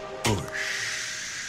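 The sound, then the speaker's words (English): A man opens a beer can held in his hand with a sharp pop, followed by a steady fizzing hiss that keeps going with no one speaking. “Why this can is making this shh kind of sound.”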